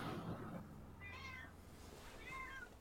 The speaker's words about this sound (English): My cat's in the background. She's got something to say.